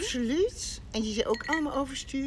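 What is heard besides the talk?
ice clinking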